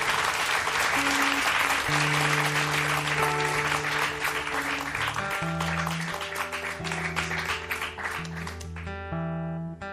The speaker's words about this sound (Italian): Facciamo un bel applauso. Lei è timidissima, è giovane, ma è molto brava. Ascoltiamola dal vivo.